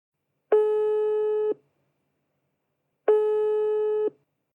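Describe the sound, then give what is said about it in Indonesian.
Two long, steady electronic ringback tones about two seconds apart, each lasting roughly a second, heard alone with silence between them, as a phone call to a friend connects. “Ya udah kita telepon aja yuk.”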